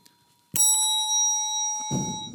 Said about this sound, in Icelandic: og þá ætlum við að fá að heyra í bjöllunum ef við byrjum á ykkur Vafa Þetta er bjallan fyrir austan MI